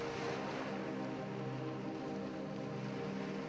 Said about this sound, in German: Glatt und friedlich kommen auch die dunkelblauen Wogen langsam zur Ruhe.